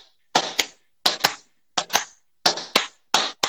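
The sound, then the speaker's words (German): Two people clap together in a steady rhythm so their recordings can be synced, sharp handclaps landing in quick pairs, five pairs in all, with short silent gaps between them and no talking. “Nein, nein, du musst in meinem Rhythmus mitklatschen.”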